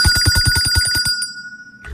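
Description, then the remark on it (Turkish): A bright electronic bell ringtone, a reminder to drink water, trills in rapid, evenly spaced pulses for about a second, then cuts off, leaving a sustained ringing tone that fades into quiet. “İşte o zil sesi.”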